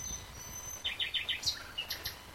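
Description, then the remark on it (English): A nightingale sings at night, a quick run of four repeated notes followed by sharper, higher whistled phrases, over a low background rumble with no one talking. “This is all nightingale in the background.”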